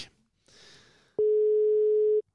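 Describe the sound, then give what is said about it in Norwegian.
A soft rustle of handling noise, then a single loud, steady telephone ringing tone lasting about a second, a plain hum-like beep heard while a call connects. No one speaks. “Håper han tar telefonen.”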